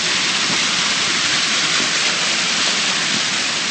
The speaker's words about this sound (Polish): Tutaj natomiast po lewej stronie przechodzę koło takiego malutkiego, well, malutkiego, no takiego z 50 metrów wodospa wodospadu. On właśnie tutaj szumi radośnie w tle.